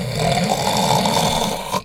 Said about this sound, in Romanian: După ce-și potoli foamea, Lupul se culcă din nou în pat și, prinzându-l somnul, a dormit și început să sforie de se cutremurau pereții.